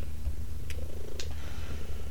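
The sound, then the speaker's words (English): A cat purrs steadily, a low rumbling rhythm that fills the moment, with a couple of faint higher clicks or rustles over it and no one talking. “we hope you guys enjoyed this um, episode and the sound of cuddles purring”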